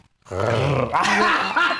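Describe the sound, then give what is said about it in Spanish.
A person lets out a long, loud, throaty growl imitating a tiger's roar, rising in intensity and sustained for over a second. “Ya ahorita ya te ¿eh? pusiste rojo con el gruñido, Tigres”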